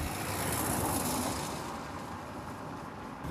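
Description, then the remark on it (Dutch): A vehicle rushes past on a street with truck traffic and speeding cars, a broad roaring swell that peaks early and then recedes into steady traffic hiss. No voices are heard. “Vrachtverkeer, auto's die te hard jaren.”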